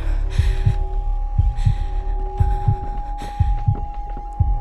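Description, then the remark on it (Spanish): A heavy heartbeat pounds in steady lub-dub pairs, about six beats, loud over a constant low hum, with faint breathy hiss between thumps and no voices: a person's heart pounding with each step down a staircase. “el corazón me latía con fuerza con cada escalón que bajaba.”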